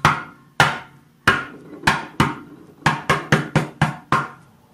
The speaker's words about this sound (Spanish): el cuate que llega en la madrugada como a las 3 de la mañana bien borracho? Llega y como puede toca la puerta.